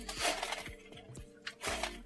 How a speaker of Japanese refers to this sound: これ、後ろもしかしてザラザラ言ってる。めっちゃ聞こえてますね。猫、猫砂えっと、ね、ね、猫が砂をガシガシしてる音。そわそわしてるのかなそう。